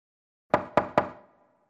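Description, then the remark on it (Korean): Three quick knocks on the door of an older sister's bedroom, evenly spaced, each a sharp rap with a short resonant tail, then silence. “문을 두드리니 들어와 하는 소리가 들렸다.”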